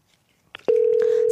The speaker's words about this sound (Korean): 네, 3053님께 전화 걸어보겠습니다.